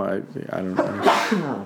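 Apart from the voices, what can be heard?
sneeze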